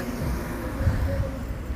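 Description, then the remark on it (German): Steady low rumble of car traffic outdoors, a continuous wash of engine and road noise with vehicles passing and no clear gaps. “Hier voll die Autos, ey.”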